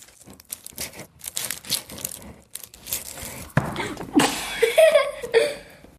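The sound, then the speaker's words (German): Crinkly plastic packaging being unwrapped, a run of irregular rustling and crackling bursts that grows louder toward the end, with a brief chuckle mixed in. “Auspacken!”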